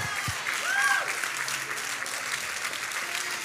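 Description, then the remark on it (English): An audience claps steadily and densely for the full stretch, clapping for what He is doing for their neighbours, a continuous wash of many hands with no pauses, while a brief raised voice rises above it early on. “I'm clapping for what He's doing for you.”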